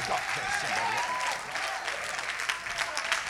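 A crowd applauds steadily for a few seconds, a dense, even wash of many hands clapping at once, with a few faint voices or whoops rising through it.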